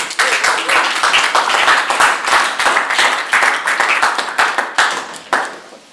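A crowd applauds with dense, steady clapping from many hands, loud and close, tapering off toward the end.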